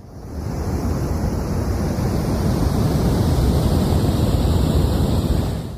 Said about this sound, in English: And finally, let's listen to what is called brown noise.